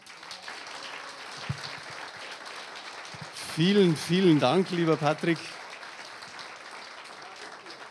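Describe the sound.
Steady audience applause fills the whole stretch, a dense, even patter of many hands clapping, while a man briefly speaks over it partway through.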